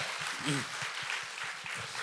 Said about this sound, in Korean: 여러 박수 한 번 좀 일단 부탁드리겠습니다.